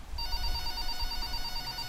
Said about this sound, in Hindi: 24 जून 2018 बरसात की रात थी हवाएं बहुत तेज चल रही थी रात की किसी पहर घर का लैंडलाइन नंबर बजा